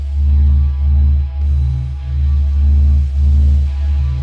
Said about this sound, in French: la NASA a enregistré le son du Soleil